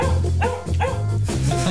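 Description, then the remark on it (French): A dog barks several times in quick succession, loud, each bark a short throaty burst with a faint whine between them and no voices. “Où donc passer ce chien Je le cherche partout.”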